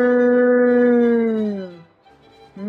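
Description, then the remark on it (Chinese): A person imitates a cow's moo: one long, low, steady voiced 'mooo' that slides slightly downward in pitch and fades after about two seconds, followed by the start of another sound. “然后我还会，嗯，然后牛叫是，嗯哞”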